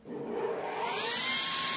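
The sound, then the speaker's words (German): A circular saw runs continuously with a loud, steady mechanical whine and a thin high tone in the wood workshop of the Berufsbildungswerk St. Franziskus in Landsberg, Lower Bavaria, operated by a trainee in wood processing. Its hiss brightens slightly as it spins up, and nobody speaks. “Ihn schrecken weder das scharfe Sägeblatt noch der Maschinenlärm.”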